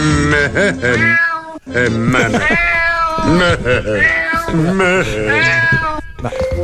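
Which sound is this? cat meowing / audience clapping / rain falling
cat meowing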